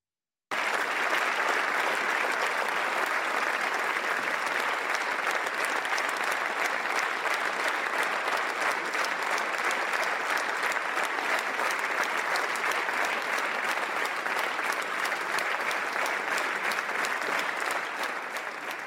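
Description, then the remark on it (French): Sustained, dense applause, an ovation from about 150 deputies and senators in the Senate for King Charles III, steady and loud from start to finish, with many hands clapping at once and no voices standing out. “Je voudrais qu'on revoie l'ovation que. 150 députés et sénateurs qui étaient dans l'enceinte du Sénat pour écouter le roi aujourd'hui lui ont donné.”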